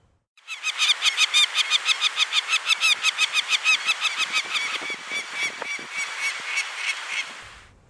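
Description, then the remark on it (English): Peregrine falcon nestlings at the nest give a loud, continuous stream of harsh, rapid begging calls, repeating several times a second for about seven seconds, with no talking. “And then, of course, the nestlings make noisy begging calls too.”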